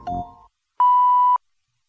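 A single clear electronic page-turn signal beep, steady and fairly loud, lasting about half a second, following a brief softer tone and thump, then silence.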